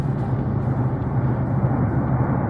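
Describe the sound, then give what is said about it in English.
A steady, dense low rumble with a constant droning hum, loud and unbroken throughout: the cosmic rumble of the early universe, produced by shock waves as the universe was forming, decoded by scientists and pitched up into an audible range. No voices are present. “These are the actual and the first sounds the universe ever produced, at the stage when it was still forming.”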